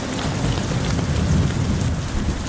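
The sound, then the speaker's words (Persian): A sudden downpour of heavy rain, a dense, steady hiss of drops pounding surfaces with a deep low rumble underneath, loud and constant throughout, with no voices. “بارون گرفت من فکر کنم یه چیکه افتاد تو دماغم اینجوری رسید اوه اوه اوه، نه نه نه بارون بارون بارون جدی گرفت جدی شده جدی شده بارون”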